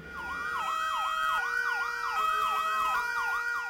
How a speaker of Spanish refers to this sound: El sonido de la alarma activó el plan de evacuación y de inmediato se escucharon las sirenas de bomberos, ambulancias y otras unidades de emergencias.